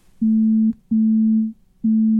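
A phone rings for an incoming call from the speaker's daughter, sounding as three loud, steady low buzzing tones in a regular on-off rhythm, with no talking.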